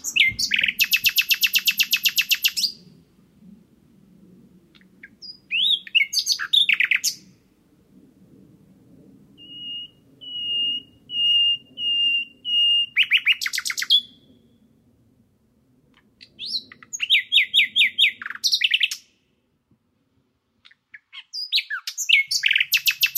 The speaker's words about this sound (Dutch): Dus je hebt een grote kans dat, eh, ja, dat hij een vrouwtje naar beneden kan lokken. Nou, we gaan nog één keer luisteren naar dat mooie, indrukwekkende geluid van de nachtegaal.